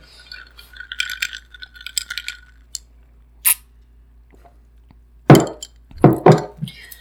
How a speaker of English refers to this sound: This is ASMR of me drinking out of a glass with a straw. Was that mouth sound loud enough for all the ASMR people?